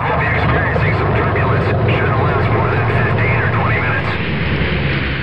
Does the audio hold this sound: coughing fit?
no